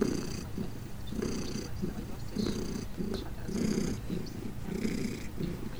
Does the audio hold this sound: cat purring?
yes